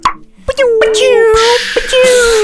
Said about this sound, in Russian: Тост. Открываем шампанское.